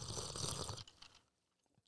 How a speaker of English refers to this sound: As I sip my tea. That's a little ASMR for y'all.